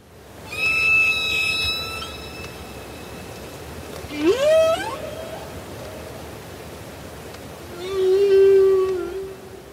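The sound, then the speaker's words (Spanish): Whale song: a long, steady high tone with rich overtones, then a rising swoop that warbles upward, and a low moaning call near the end, all over a wash of underwater hiss. “Roger Payne, científico, quien demostró que las ballenas son capaces de cantar, falleció a los 88 años.”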